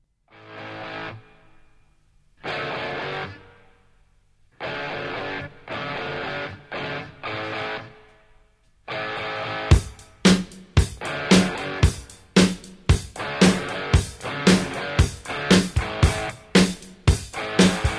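A hard rock song intro: loud distorted electric guitar chords ring out in spaced bursts with pauses between, then a steady pounding drum beat kicks in under the chugging riff.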